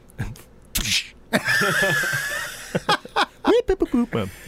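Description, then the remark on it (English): A voice imitates movie punch sounds: a couple of sharp, breathy mouth bursts, one trailing into a hissing, whistly tail, followed by short choppy vocal syllables. “legendary punch is hitting a pile of leather jackets with a baseball bat.”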